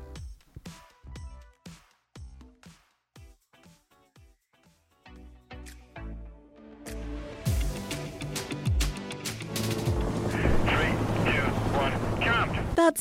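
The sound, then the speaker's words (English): A helicopter roars loudly 9,800 feet above Austria's mountains as Peter Salzmann launches from it on the maiden flight of the first electric wingsuit, designed by BMW and Designworks; its rotor noise builds into a dense, steady rush of wind and engine, following a few seconds of sharp, rhythmic knocking beats. “Air Airsports pioneer Peter Salzmann launching himself from a helicopter 9,800 feet above Austria's mountains.”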